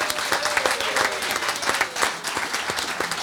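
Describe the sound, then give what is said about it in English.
An audience applauds the guests of the first part steadily, many hands clapping in a dense, continuous patter with small sharp peaks, filling the whole stretch at a fairly loud, even level. “Another round of applause for George Cooper, Elizabeth Barnard, Drew Heatley, and Harry Durham.”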